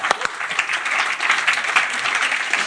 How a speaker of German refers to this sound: Ist es nicht ein fantastischer Gott? Ihr dürft wieder klatschen.